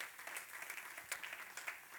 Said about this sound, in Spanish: Den un aplauso al Señor, claro que sí.